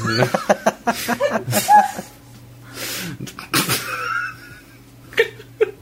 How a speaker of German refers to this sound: Gesundheit. Gesundheit.